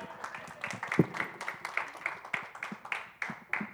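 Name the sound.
audience round of applause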